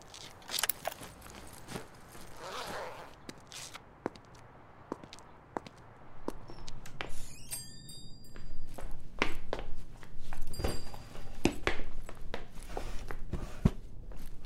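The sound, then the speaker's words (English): Irregular footsteps walk across a hard floor into a car dealership, sharp taps over a steady low background hum, with a few faint high tonal chirps partway through. No one speaks. “I found a car dealership. I'm gonna wander inside.”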